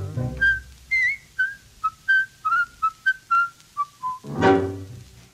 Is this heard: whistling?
yes